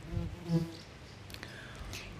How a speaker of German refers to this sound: Also es kann sein, dass man im Mikrofon die Wespen hört. Wenn man es immer so surren hört, ne? Liebe Leute, das sind die Websen.